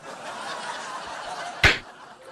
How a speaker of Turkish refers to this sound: Neydi ya o ses? Sinek geçti de ona vurdu.